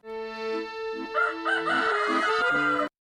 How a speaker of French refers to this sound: Il y a les coqs qui chantent dès 6 heures du matin.